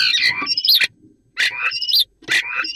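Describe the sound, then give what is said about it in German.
A common starling sings three loud bursts of squeaky, whistling song with rising and falling notes, each phrase separated by a brief pause, with no talking over it. “so klingt ein Star.”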